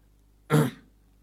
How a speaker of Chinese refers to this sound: 秦宇被表哥的话搞得是哭笑不得，咳嗽了一声。